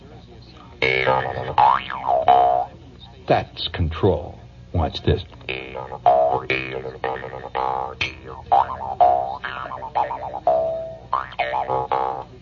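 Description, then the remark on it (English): A Jew's harp twangs in rapid, springy bursts, its pitch bending and wobbling as notes are shaped, with a brief spoken remark in the middle. “And I'm not going to do a Jew's harp thing tonight, except to show you that uh, to get that kind of sound takes a lifetime of dedication.”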